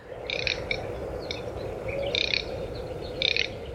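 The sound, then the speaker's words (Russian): Male garganey duck calls: four short, dry crackling rattles repeating at roughly one-second intervals, moderately loud over a steady wash of outdoor background noise, with no talking. “Или трескунка.”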